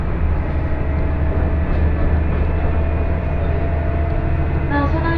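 Steady rumble of a two-car passenger train on the IGR Iwate Galaxy Railway and JR Hanawa Line, running from Morioka toward Ōbuke, heard from inside the car, with a brief high whine near the end.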